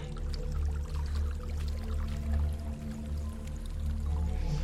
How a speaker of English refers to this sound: There's a waterfall.